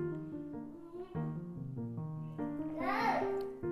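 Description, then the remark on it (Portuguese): A child shouts, a raised, wailing voice that rises and falls continuously, loudest near the end with a shrill, strained peak. “gritando ali.”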